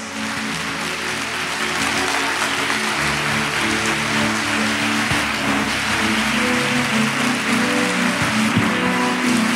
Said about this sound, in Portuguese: Quantos creem nisso, fica de pé aplaudindo ao nome dele nessa noite.